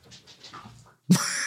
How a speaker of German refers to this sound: Jetzt hört man's echt, also. Das ist unser Hund, der ja. gerade einen kleinen Juckanfall hat und sich dementsprechend am Teppich wälzen muss.